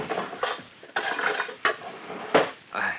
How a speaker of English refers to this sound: Hand me that other spoon from the drawer.